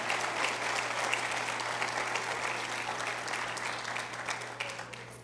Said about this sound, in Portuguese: Aplauda Jesus.